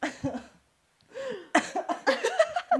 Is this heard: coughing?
yes